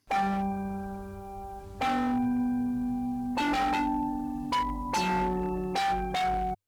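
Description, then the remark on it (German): A bell-like melody of about eight struck tones played through a harsh bitcrusher distortion, each note gritty and buzzing with a crackly digital hiss, loud and with no talking. “Machen wir mal einen Bitcrusher an.”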